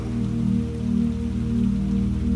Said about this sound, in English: And a gentle rain begins to shower down upon you.